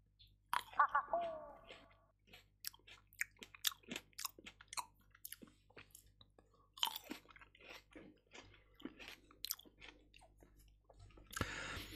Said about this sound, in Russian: Можно сидеть кушать с удовольствием, но ты ж спецом сидел, чавкал прямо в микрофон. Неприятно.